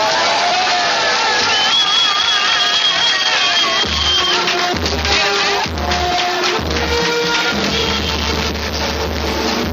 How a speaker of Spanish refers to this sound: Bueno, hasta con música le recibieron con muchísimos aplausos y con todo el cariño del mundo.